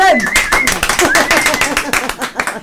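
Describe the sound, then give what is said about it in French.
A burst of lively applause, many hands clapping in a dense, irregular patter for a few seconds, with voices calling out and chattering over it. “moi non plus On applaudit Ouais, ouais,”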